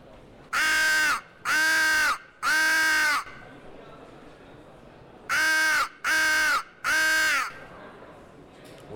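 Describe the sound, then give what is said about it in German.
A crow assembly call blown on a lure for crow hunting: three loud, harsh caws in a steady rhythm, a short pause, then another set of three, with no talking. “Ein ganz klassischer Krähenruf.”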